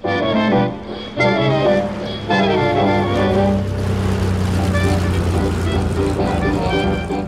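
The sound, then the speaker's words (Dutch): A Condor propeller aircraft carrying Adolf Hitler, Albert Speer and Arno Breker drones steadily in flight, a loud, continuous low hum with layered tonal overtones that waver slightly in the first couple of seconds before settling into an even roar. “We zitten in de Condor en we vliegen mee met Adolf Hitler, Albert Speer en Arno Breker.”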